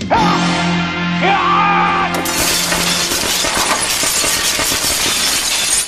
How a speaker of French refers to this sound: Fait que les, les, les, les, globes électriques qui pètent pendant qu'il glisse sur le fil, c'est des vrais globes.